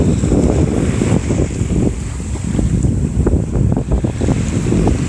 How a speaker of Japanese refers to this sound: ちょっとだけやっぱ風が強いから今日は波がザブザブいつもよりしてる気がします騒がしい感じですねああ、ちょっと風がすごい強いこんな音になっちゃってるんだろう